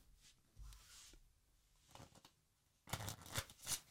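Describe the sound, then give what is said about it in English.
A deck of playing cards is shuffled before a card trick, starting with soft handling and rustling, then a loud, rapid riffle of cards fluttering together near the end, with no talking. “are those shuffled? Yeah, sure.”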